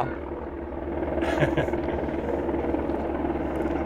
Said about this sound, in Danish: Så er der også helikopter. Det ligner... Det ligner de filmer ned på os. Den er, den er ude for... hænger faktisk ret stille